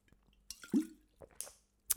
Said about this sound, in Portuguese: Vou beber água a ver se funciona.